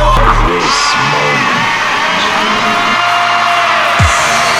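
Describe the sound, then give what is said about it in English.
A loud crowd cheers and yells continuously, with shouts and whoops layered over a dense roar of many voices, sustained for several seconds without pause. “I've never seen a crowd so fired up. Can I hear some noise inside the place, please?”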